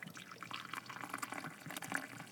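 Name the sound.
coffee poured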